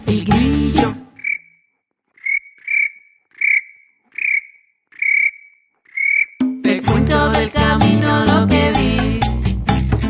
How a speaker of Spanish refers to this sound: El grillo